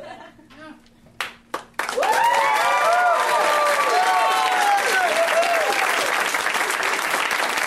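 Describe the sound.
After a brief voice, a crowd erupts into loud, sustained applause mixed with rising whoops and cheers, a dense wash of clapping that holds steady to the end.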